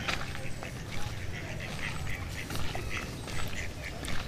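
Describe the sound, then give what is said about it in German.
Ducks in a poultry enclosure quack repeatedly in a noisy, crowded chorus, the calls overlapping in uneven bursts against steady outdoor background noise. “Enten.”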